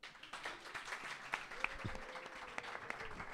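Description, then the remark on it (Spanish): A crowd breaks into steady applause, many hands clapping in a dense, continuous patter that holds at an even level for a few seconds, with a faint voice briefly underneath. “Un aplauso para la masturbación.”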